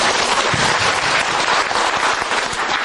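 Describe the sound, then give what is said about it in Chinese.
Sustained audience applause for a company's sales representatives and promotion staff, a dense, steady wash of many hands clapping at an even loudness throughout, with no voices breaking through. “我想给他们一个掌声，好不好？”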